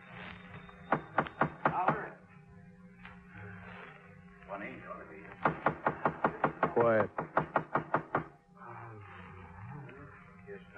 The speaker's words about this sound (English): Well, I've been knocking.